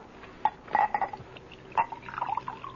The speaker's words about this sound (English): Wandering about with a knapsack, living off of chicken and wine? Let me fill your glass.